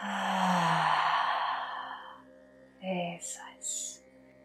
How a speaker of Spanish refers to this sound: De nuevo, inhala. contienes y por tu boca exhalas y sueltas lentamente.